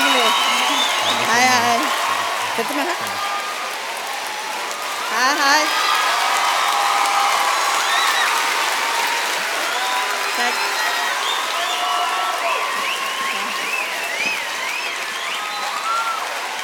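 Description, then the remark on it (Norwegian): A crowd of about 2,600 at the Impuls conference in Norway claps warmly and steadily for Prime Minister Erna Solberg for the whole stretch, the dense applause mixed with scattered whoops, cheers and a few shrill whistles rising above it. “Så nå har jeg lyst til at dere skal gi en god og varm applaus til statsministeren vår, Erna Solberg.”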